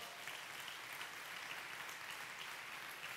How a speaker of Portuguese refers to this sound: aplaudo o Senhor por essa palavra.